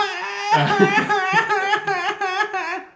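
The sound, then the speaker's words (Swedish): A person imitates a gull: one drawn-out nasal cry, then a rapid run of sharp, laughing squawks, loud with no other talking. “Och låter, alla vet hur en mås låter.”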